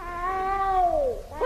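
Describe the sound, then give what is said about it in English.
A cat gives one long, drawn-out meow that slides downward in pitch, followed by a brief, sharper yelp at the end. There is no talking over it. “That's the first time I heard a cat bark.”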